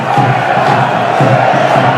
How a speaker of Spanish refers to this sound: Pues la gente encantadísima eh, con lo que está viendo. ¿eh? Y gritos de fuera, fuera para el árbitro